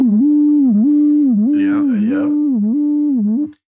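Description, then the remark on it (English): A loud, powerful electric toothbrush buzzes steadily at a strong vibrating speed for about three and a half seconds, pulsing in a regular rhythm, with its tone briefly muffled and shifting midway before it cuts off. “It's got vibrator speed. Why do you need a toothbrush that does the vibrator thing?”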